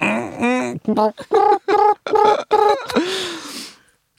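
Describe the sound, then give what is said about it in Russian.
A human voice imitates a pigeon's gurgling, warbling esophagus sound in a run of short, rapid bursts, ending with a breathy, hissing exhale. Fairly loud, with no other speech. “Коллеги, э, давайте изучим вот здесь. И так пищеводом.”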